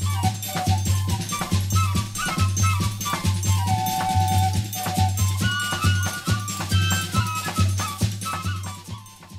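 A music track by a band from Piauí plays loud and full throughout, driven by a steady, pulsing bass rhythm with melodic lead lines weaving above it and no talking over it.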